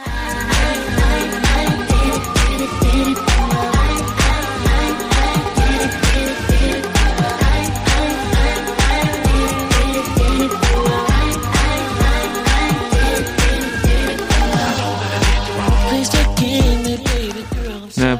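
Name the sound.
K-pop song playing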